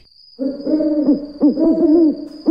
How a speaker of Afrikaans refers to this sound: En toe begin daar nie een nie, nie twee nie, maar 'n hele klomp uile roep. Hulle het die hekse gesien en gehoor en die uile roep nou almal hard.